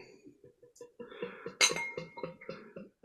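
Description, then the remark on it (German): Glass clinks and taps as a drink is poured from a bottle, with one sharp, bright clink standing out amid a run of lighter knocks and faint pouring sounds. “Ihr müsst überbrücken, heute muss ich einschenken.”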